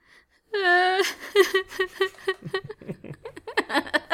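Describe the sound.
A single voice lets out a loud, drawn-out fake wail that breaks into a rapid string of rhythmic, pulsing laughs, with no other sounds around it.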